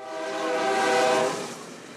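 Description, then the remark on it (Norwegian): A freight train horn blares in a sustained, slightly wavering blast over the rumble of the moving train, which is heading north through sugarcane fields in southern Mexico with young men clinging to its roof and sides; the sound swells and then fades as it passes. “Et tog med drømmer er på vei nordover, gjennom Mexico og mot USA, med håp om et bedre liv.”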